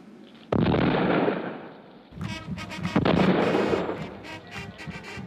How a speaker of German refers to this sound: Festliches Glockengeläut und Böllerschüsse begleiten dieses historische Ereignis.